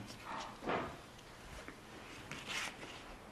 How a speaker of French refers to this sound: Attendez deux minutes, je l'ouvre. Allez, vite, vite. Il s'agit probablement d'un manuel d'occultisme